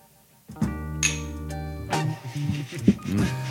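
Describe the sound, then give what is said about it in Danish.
Glasses touch in a toast, a couple of bright clinks with a lingering ring, followed by people murmuring and talking. “vi kunne lige tage en skål til”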